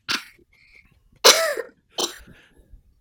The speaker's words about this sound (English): Maybe persistent cough. Oh, yeah. Persistent cough.